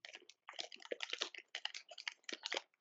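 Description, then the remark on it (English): Rapid keyboard clatter mixed with crunchy chewing as someone types on a keyboard while eating, a dense run of clicks and bites with a brief pause near the start, fairly quiet and with no talking. “Are you eating or typing or what's going on?”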